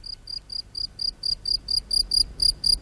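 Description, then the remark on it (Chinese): Crickets chirp outside a house at night in a steady, even rhythm, a string of shrill high-pitched pulses about four per second, moderately loud against a faint low rumble, with no voices. “罗拉躺在床上，听着屋外蟋蟀的鸣叫”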